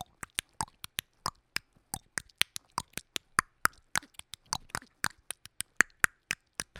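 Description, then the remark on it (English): A voice imitates the click language of an ancient African Bushmen tribe with a long, rapid series of sharp tongue and mouth clicks in an uneven, speech-like rhythm, with no words spoken. “They're a, a an ancient uh, African tribe, and they communicate with a series of, of clicking sounds.”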